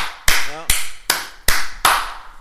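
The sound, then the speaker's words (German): One person claps five times in a steady, even rhythm, each clap a sharp, crisp smack with a short ring-out. A brief voiced sound is faintly audible between the first two claps. “Ich habe für euch geklatscht, wirklich.”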